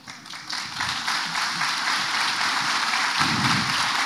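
An audience applauds steadily, a dense wash of many hands clapping that swells in the first half second and stays loud throughout, with no voices over it.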